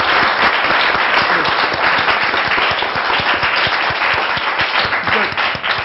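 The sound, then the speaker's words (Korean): A crowd applauds steadily for about six seconds, many hands clapping in a dense, loud, even wash with individual sharp claps poking through; no one speaks over it. “아, 이거 이거 박수 네, 한번 드려야 되는 거 아닌가요?”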